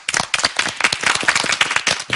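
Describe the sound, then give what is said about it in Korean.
An audience applauds to invite a lecture about King Yeonsan, many hands clapping in a dense, continuous patter of sharp claps at a fairly loud, even level throughout, with no voices over it. “자 그러면 연산군에 관련된 강연 저희 박수로 청해드리도록 하겠습니다.”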